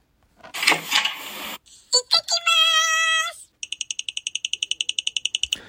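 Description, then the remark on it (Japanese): A quick, even run of about twenty light footsteps, a sound effect for an elementary school child cheerfully heading out, follows a short burst of rustling noise and a ringing, chime-like tone. No one speaks. “ちょっと足音が違かったかな。”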